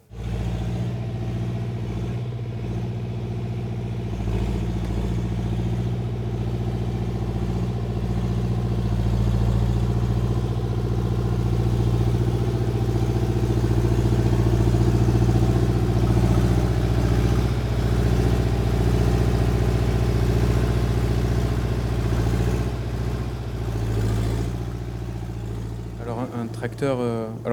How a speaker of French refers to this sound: Alors aussi en milieu rural, euh, peut-être le tracteur est le symbole de la mécanisation des, des, campagnes. On va écouter un tracteur des années 80, une signature euh, historique même.